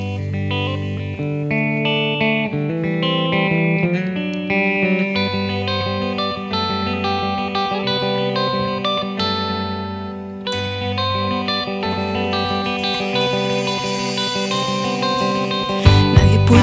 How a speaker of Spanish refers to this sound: Vamos a relajarnos escuchando un poco de música con unos paisanos suyos y volvemos enseguida.